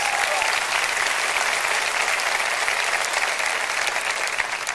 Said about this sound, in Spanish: Aplaude a tu Dios si lo conoces.